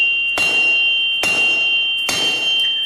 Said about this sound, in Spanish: Y como colofón a todo esto, durante la demolición del barco, los misteriosos martillazos que habían causado tres motines e incontables vidas volvieron a dejarse sentir más fuerte que antes.